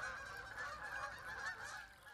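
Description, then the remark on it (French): A flock of wild geese honking as they take flight over the Loire river past Orléans, France, at sunset, many overlapping calls forming a continuous clamor, steady throughout with no voices. “Il y avait des vols d'oies sauvages qui s'envolaient juste en face de moi.”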